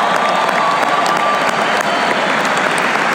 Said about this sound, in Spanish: O sea, un aplauso para todas las mamás, mujeres que están en esta sala.